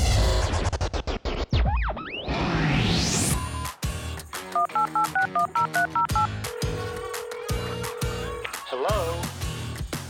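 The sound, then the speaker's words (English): A rapid run of telephone touch-tone dialing beeps as a call is placed, each a short clear double tone, followed by a steady sustained tone, set within a busy jumble of sweeping whooshes, clicks and glitchy noises. “I give him a call to talk all about it.”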